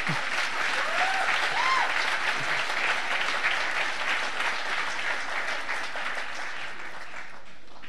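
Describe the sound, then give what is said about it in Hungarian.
Sustained applause from a large conference audience for first-time attendees, dense and steady clapping for several seconds before gradually thinning out, with a few faint cheers or whoops near the start. “Most pedig azokat kérném, akik először vannak itt a második konferenciánkból, őnekik egy még nagyobb tapsot.”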